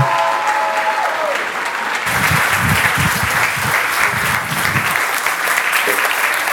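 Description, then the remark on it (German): Loud, sustained applause from a large crowd, a dense wash of clapping that swells after a couple of seconds and continues steadily with some cheering voices mixed in. “Aber ich hoffe trotzdem, dass die Leute da draußen jetzt ganz laut applaudieren.”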